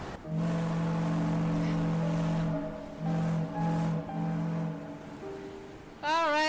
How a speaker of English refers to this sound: Well, that's the foghorn coming directly to you from the Cape over here in Massachusetts.